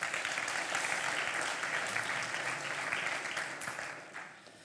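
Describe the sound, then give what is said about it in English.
A crowd claps steadily for several seconds, a dense wash of many hands that holds fairly loud and then thins and fades toward the end, with no voices. “Let's give him a round of applause.”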